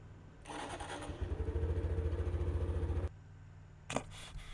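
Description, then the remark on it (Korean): A small Honda Super Cub motorcycle engine runs with a steady, pulsing putter for a few seconds, then cuts off with a click, followed by a brief sharp clack. “아이 그럼 자기 다음에 자기 오토바이 이런 식으로 찍어서 이렇게 해서 돌리는 걸 아이 카페에 올려.”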